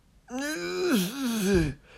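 A person lets out one drawn-out groaning moan while stretching, fairly loud, its pitch wavering up and down for about a second and a half before dropping into a low, strained push.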